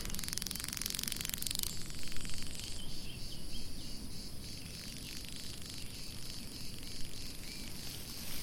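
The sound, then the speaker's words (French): A steady outdoor drone of bees buzzing around flowers in the Baronnies region, the hum of their wings a continuous soft sound that fills the scene, with faint high chirping textures layered above and no voices. “Tu peux observer et tu peux euh, écouter les abeilles qui sont sur les fleurs. Ce son apaisant, on entend ce bruissement des ailes ce, bruit des abeilles.”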